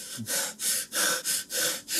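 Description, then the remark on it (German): A voice mimics a man's heavy, ragged breathing, five or six loud breathy huffs in a steady rhythm with brief pauses between, no words spoken. “atmet schwer und geht nochmal ohne Hemmung auf sie los.”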